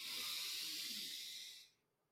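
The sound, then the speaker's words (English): A long, steady, deep diaphragmatic breath drawn in through the nose as a deep-breathing exercise, a broad airy hiss that holds for about a second and a half before fading out. “When I find myself getting anxious or getting stressed, the first place I start is with deep breathing through my diaphragm. So, deep in through my nose,”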